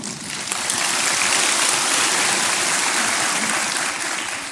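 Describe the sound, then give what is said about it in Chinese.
A crowd bursts into sustained applause, a dense wash of many hands clapping steadily and loudly for several seconds without any talking, swelling slightly before easing near the end. “好，你们能够这样的练习，能够鼓掌，我好欢喜。”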